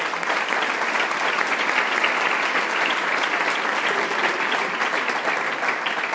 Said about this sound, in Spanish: Les voy a pedir un aplauso a todas las personas nuevas.